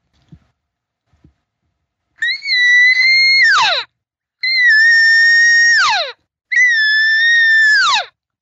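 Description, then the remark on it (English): A person imitates a more insistent, lengthened cow elk call with three long, insistent mews, each a high, steady nasal tone that ends in a sharp downward slide, after two faint clicks. “And if I wanted to get more insistent, I would lengthen, and that's what a cow would do, and she would do this.”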